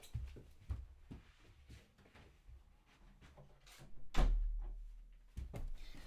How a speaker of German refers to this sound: Ähm, wartet, ich mach kurz mal die Tür zu von meinem Zimmer.